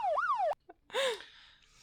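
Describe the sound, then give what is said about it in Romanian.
A police siren sound effect wails in quick rising and falling sweeps, cut off briefly, then returns in a second, noisier burst that fades out. It is loud, with no talking. “Ui, ui, ui. Chemați poliția.”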